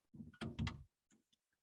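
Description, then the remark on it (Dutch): A door swings open with a short burst of knocking and rattling, followed by a few faint clicks as it settles. “De deur, de die viel open.”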